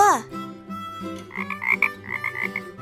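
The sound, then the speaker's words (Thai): Frogs croaking in a rapid, rhythmic chorus, repeated pulsing calls with brighter bursts layered over a steady low throb, moderately loud with no talking. “ณ หนองน้ำแห่งหนึ่ง ได้มีกบสองตัวอาศัยอยู่”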